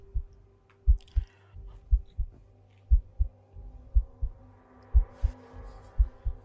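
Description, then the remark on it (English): Deep, heavy thumps pulse in a steady heartbeat-like rhythm, paired beats repeating about every second, loud over a low hum with no voices. “And uh, where's that bass drum coming from? The giant thing is pulsing.”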